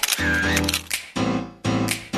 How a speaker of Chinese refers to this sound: 咔嚓咔嚓，美好的事物就用相机拍下来。